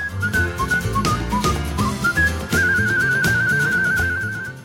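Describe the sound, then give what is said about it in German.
A clear, melodic human whistle carries a tune over a full musical accompaniment, with a long sustained trilling passage toward the end. No one speaks. “Er hat das Pfeifen, sein Markenzeichen, zur Kunst erhoben.”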